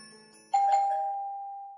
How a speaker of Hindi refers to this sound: दूसरे ही दिन सुबह के आठ बजे घर नंबर 1404 में घंटी बजी